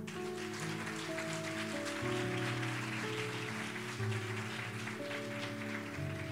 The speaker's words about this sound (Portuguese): Você pode aplaudir o Senhor?